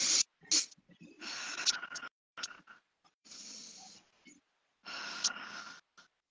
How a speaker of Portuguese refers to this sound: E respirar. Então, eu vou respirar pelo nariz e soltar pela boca, né? Respirar.